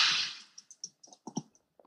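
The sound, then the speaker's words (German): A very foamy beer pours into a glass with a brief fizzy hiss that fades within half a second, followed by scattered faint crackles and soft clicks of settling foam. No one speaks. “Ich gieße mal ein.”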